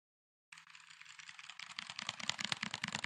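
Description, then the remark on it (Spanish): After a moment of silence, typing on a K2 mechanical keyboard starts, a dense, rapid clatter of key clicks that grows louder and busier toward the end, with no voices. “Te, teclados, güey. Ya me llegó el K2.”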